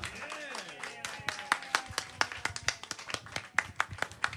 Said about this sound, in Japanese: もう一度大きな拍手を